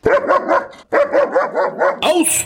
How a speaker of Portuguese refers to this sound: Então, vai ser uma honra pra gente receber o pessoal da CIOC aqui, pra gente fazer um, um, novamente um episódio sobre esse animal fantástico, né? Aliado ao serviço policial, que é o cachorro.